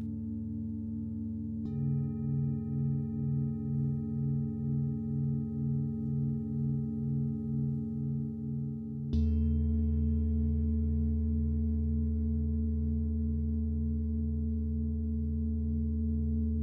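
Singing bowls are struck twice during a guided meditation, each strike blooming into a long, sustained ringing hum with a slow, wavering pulse. The second bowl joins with a deeper, louder tone, and no one speaks.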